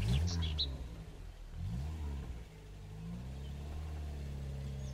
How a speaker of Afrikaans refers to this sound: Pappa skakel die kar aan en hulle vertrek.